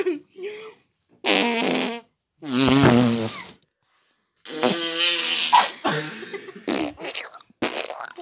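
A string of loud fart noises made with the mouth: several buzzing, sputtering blasts of varying pitch, separated by short pauses, then a longer run of rapid wet raspberries.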